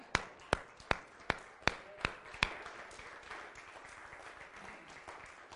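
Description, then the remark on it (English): Seven crisp, evenly spaced hand claps ring out, then give way to a steady wash of an audience clapping together that continues to the end. “Give the Lord a hand clap.”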